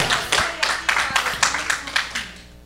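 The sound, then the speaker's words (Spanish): A church audience claps as an offering of applause to the Lord, in a steady, fairly quick rhythm, about nine broad, bright bursts of many hands, fading slightly toward the end. Faint voices sit underneath. “Den ofrendas de palmas al Señor, aleluya.”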